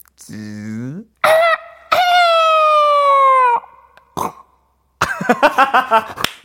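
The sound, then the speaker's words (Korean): A voice imitates the bird in the Angry Birds video game flying, missing its target and dropping to the ground on its own: a sliding squawk, then a long strained, wavering cry that drops in pitch, followed by short choppy bursts and a quick stuttering squeal, all fairly loud. “화난 새. 예, 예, 게임. 예, 게임의 그. 소리. 소리를.”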